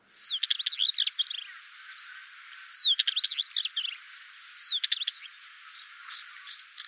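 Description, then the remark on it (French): A northern wheatear calls in three short, scratchy bursts of clicks and quick whistled notes, separated by brief pauses, clear over a faint background hiss with no voices. “Mais en fait, ça vient d'où ce mot de traquet le traquet serait une pièce d'un moulin qui fait un claquement sonore assez, spécifique qui ressemblerait au, cri de l'oiseau.”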